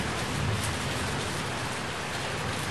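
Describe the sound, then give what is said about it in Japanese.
Heavy rain from a spring storm pours down hard and steadily, beating on a road surface, with wind. It is a dense, continuous hiss and patter with no pauses. “冬は簡単にその座を明け渡しはしない路面を激しく叩く雨を降らせ並木道の木々たちの神戸を折るように風を吹かせる春の嵐は冬の仕業”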